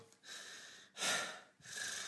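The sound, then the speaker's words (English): A voice imitates snoring with three raspy, breathy bursts in an uneven rhythm, the middle one loudest, with no talking. “but it's almost like he was like a like asleep, snoring, but trying to tell me he can't find his phone”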